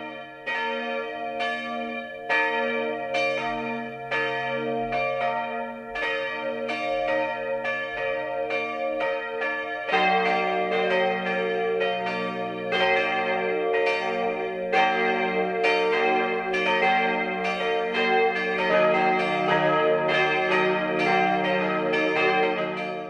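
The four bells of the pilgrimage church St. Leonhard am Wonneberg, in the Rupertiwinkel of Upper Bavaria, ring together in the 12 o'clock noon peal, layered overlapping strikes with a rich mix of pitches and long humming resonance, growing denser and louder partway through, with no voices.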